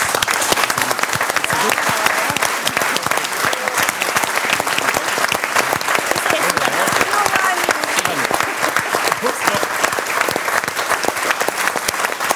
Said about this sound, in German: Und wenn du noch nicht jetzt, aber gleich schon einen Applaus vom Publikum bekommst, kann ich das für einen Moment noch weiter entspannen.